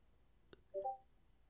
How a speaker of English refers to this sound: All right, hang on a second. I hear beeps now. Oh, that's crazy.